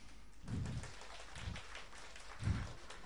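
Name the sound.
audience applause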